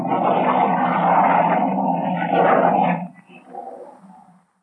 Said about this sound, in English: Great Scott. What happened? part of the ice cliff broke away and there nearly fell on us.